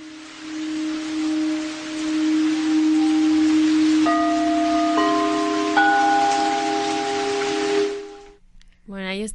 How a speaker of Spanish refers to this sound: un poquito el sonido de los cuencos, ¿no? Se escucha muy relajante.